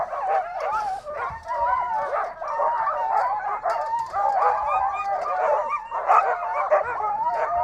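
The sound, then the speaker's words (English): A chorus of excited sled dogs barks, yips and whines continuously, many voices overlapping at once in a dense, restless clamor that stays loud throughout, as the team's fan lines and neck lines are readied for mushing. “And they are excited.”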